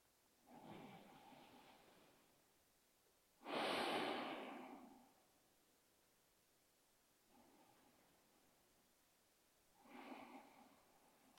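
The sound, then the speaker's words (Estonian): Slow, deep breathing, three deep in-and-out breaths: drawn-in inhales and long airy exhales, one exhale noticeably louder and fuller, with quiet pauses between breaths and no talking. “soovitan teha nüüd kolm sügavat sisse-välja hingamist.”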